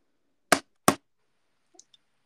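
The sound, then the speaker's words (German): Two sharp knocks of a small plastic mobile phone charger plug, its casing slightly broken and wrapped in a little adhesive tape, striking a table, about a third of a second apart, followed by a couple of faint light taps. “Ja, klopft damit mal auf den Tisch.”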